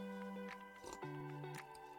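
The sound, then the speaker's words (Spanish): A quiet sip of a drink, with a soft slurp and a wet swallow, heard over a steady humming musical tone in the background. Nobody speaks. “Super lunes, sorbito.”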